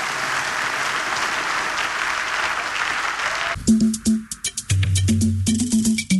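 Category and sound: crowd, audience applauding in praise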